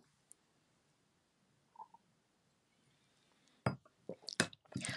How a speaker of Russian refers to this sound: Глоток воды.